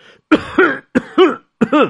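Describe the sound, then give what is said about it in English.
A person clears their throat and coughs three times in quick succession, each a sharp burst followed by a gruff, voiced rasp, loud with no talking. “The town crier had to clear his throat.”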